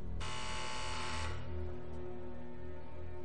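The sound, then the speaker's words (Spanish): A door release buzzer at a barred glass door of a mental clinic sounds for about a second, a harsh, steady electric buzz with a dense, gritty tone, then cuts off, leaving a low hum behind. “Estire de la puerta cuando suene.”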